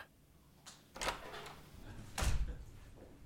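The door of a doctor's office in the centre of Tynset is opened as a man walks in: a small click, a scraping rattle, and then a heavier thump about two seconds in, against a quiet background with no talking.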